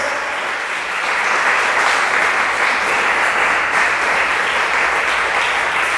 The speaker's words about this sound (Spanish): Hermano, dale palmas al Señor. Dale palmas, dale palmas.